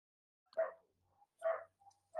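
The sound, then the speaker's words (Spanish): A dog barks three times at a steady, roughly one-second pace, each bark short and sharp, with brief quiet gaps and no talking. “ahí están los perritos, que no falten los perritos.”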